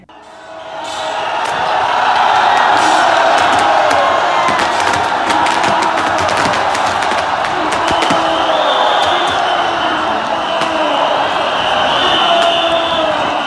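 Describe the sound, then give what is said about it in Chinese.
A large crowd at a Mazu temple procession shouts and roars continuously as the Mazu palanquin rushes into the temple, everyone calling out "jin o" ("go in"), loud and dense after a quick swell, with sharp clanging percussive hits cutting through the din. “刚锵锵锵锵锵，妈祖就是进去了，然后所有人会跟着一起喊“进哦，进哦”。”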